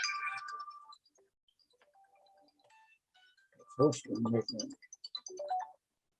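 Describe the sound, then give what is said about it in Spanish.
A phone ringtone chimes with short electronic melodic tones, fading to faint beeps before a voice starts speaking over the quiet end; the speaker had forgotten to switch off his telephone. “perdón, eh, se me había olvidado desconectar el teléfono,”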